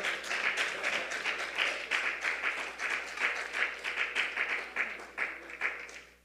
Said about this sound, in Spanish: Un fuerte aplauso todos para la presencia de